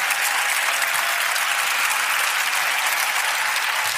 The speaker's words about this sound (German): Dein Applaus